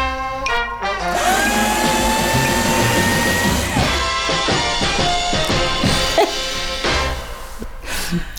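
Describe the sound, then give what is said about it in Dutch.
A paper shredder runs for about eight seconds, a loud, steady motor whine with a shifting pitch and bursts of crunching, grinding noise in the second half. “En toen heb ik de papierversnipperaar gekocht.”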